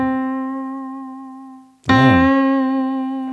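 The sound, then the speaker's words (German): A buzzy tone from a small synthesizer holds steady and slowly fades, then a second note strikes and briefly wobbles in pitch, bent by the synthesizer's turning wheel, before settling into a sustained drone. No voices. “Das äh, mache ich jetzt mit dem, ich habe hier so ein kleines Synthesizer-Gerät, wo ich so ein Drehrädchen habe.”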